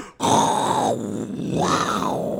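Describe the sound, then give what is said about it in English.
A voice mimics grinding, worn-out truck brakes with a loud, continuous rasping growl that rises and falls in two long swells over about two seconds. “That shit was grinding sick as.”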